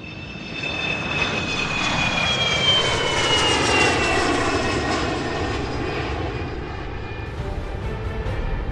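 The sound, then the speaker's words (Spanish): Five United States Armed Forces airplanes on a training mission drone steadily overhead, a loud continuous engine roar with humming tones that slowly drop in pitch as they pass, no voices. “Aquel día, cinco aviones pertenecientes a las Fuerzas Armadas de Estados Unidos se hallaban cumpliendo una misión de entrenamiento en la que se alejarían 300 kilómetros al este y regresarían a la base.”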